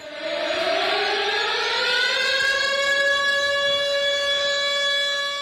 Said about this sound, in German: Sie sucht etwas auf YouTube. So klingt ein Luftalarm bei uns zu Hause, sagt die Schülerin und hält ihr Handy hoch.